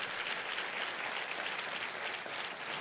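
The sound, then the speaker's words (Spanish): An audience, urged by the speaker to applaud harder, claps steadily, a dense, continuous crackle of many hands with no pauses, holding at an even, moderate loudness throughout. “Ay, si usted está aquí, dele un mejor aplauso.”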